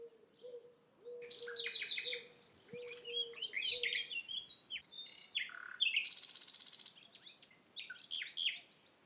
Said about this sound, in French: Sans doute il est tard, car voici que vient tout près de moi chanter mon rouge-gorge.